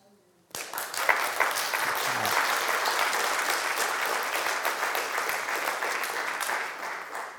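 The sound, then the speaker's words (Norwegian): Sudden burst of applause from a church audience in Norway, many hands clapping in a dense, steady patter that holds at a fairly loud level for about seven seconds before easing slightly at the end. “Og jeg forventer ikke så mye applaus.”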